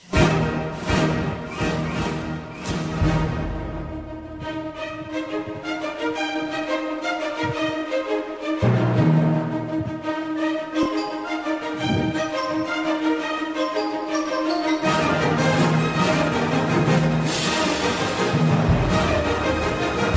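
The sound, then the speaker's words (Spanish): A bold orchestral western film theme plays loudly, with brassy melodies over a driving rhythmic accompaniment that surges and shifts sections, no voices over it. “el tema de los siete magníficos”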